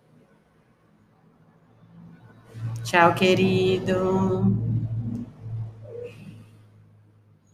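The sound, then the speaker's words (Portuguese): A neighbour's car passes by on the street outside a home, its low engine rumble swelling and fading over a few seconds while a voice briefly speaks over it. “Opa, vizinhos, vizinho aí chegando. Estamos, é assim mesmo, tá, gente? Estamos em casa, na rua... Pode, deixa o carro passar.”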